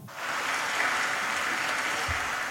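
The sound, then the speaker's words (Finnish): Steady applause from a crowd, a dense wash of clapping that holds at an even level throughout with no one speaking over it. “Aplodia arvoinen paikka.”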